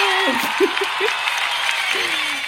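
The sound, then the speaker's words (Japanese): Steady, dense applause sound effect, a continuous crackle of many hands clapping at even loudness throughout, with a voice speaking briefly over it. “あ、これ拍手だ。拍手、拍手。”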